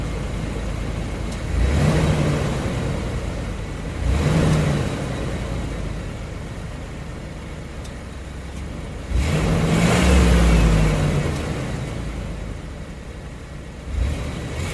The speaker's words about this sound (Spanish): Así que, de alguna manera, bienvenidos a esta furgoneta en la cual arrancamos y nos vamos.